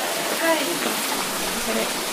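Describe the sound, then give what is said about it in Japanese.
Heavy rain, stronger than forecast, pours down in a steady, dense hiss that fills the whole clip, with a brief faint voice-like sound near the start. “そうに強く降る予報ではなかったんですが、あらっていう感じなんですが”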